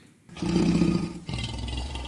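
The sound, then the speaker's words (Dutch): A lion roars loudly in a deep, rumbling growl, with a brief break midway before a second, slightly lower roar carries on to the end. No one speaks. “Het was een zwarte leeuw.”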